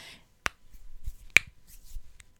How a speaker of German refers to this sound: hört ihr das? Das waren zwei von zehn Finger und ich knackt die in alle Richtungen.